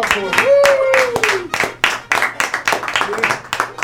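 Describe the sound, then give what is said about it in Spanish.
A small group claps in loose, uneven bursts, with a short rising whoop or whistle near the start. “Muy bien, un aplauso para”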